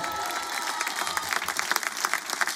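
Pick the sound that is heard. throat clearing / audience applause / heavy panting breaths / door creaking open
audience applause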